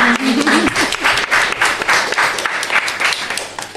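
An audience breaks into steady applause for gymnasts and their coach, a dense wash of many hands clapping at a fairly loud, even level throughout, with a brief voice or laugh at the very start.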